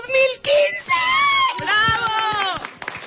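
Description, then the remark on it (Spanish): A studio audience breaks into applause, with loud cheering, whoops and excited shouting voices riding over the clapping for about three seconds. “¡Ay, un aplauso!”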